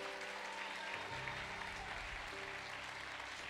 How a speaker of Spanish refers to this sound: Gracias, hermano. Dele un aplauso a Cristo Jesús.